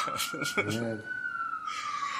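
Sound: police siren sound effect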